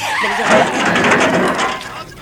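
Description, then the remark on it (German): A car's tires skid and screech across the road in a loud, noisy burst lasting a couple of seconds, tapering off slightly at the end. “Was ist, was ist drauf? Ein Wagen?”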